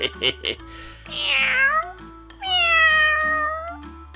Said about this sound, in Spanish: ahora, ahora un gato.